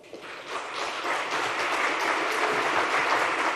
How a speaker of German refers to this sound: Eine Erkenntnis, für die Edi Rama Applaus erntete. Das war im vergangenen Sommer.